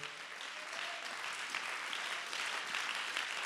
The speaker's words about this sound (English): Clap your hands one more time unto the Lord in the sanctuary.